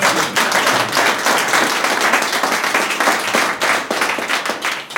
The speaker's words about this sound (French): On a beaucoup de chance, puisqu'on a un public ici qui est extrêmement attentif, qui en plus nous applaudit toujours très spontanément. N'est-ce pas, public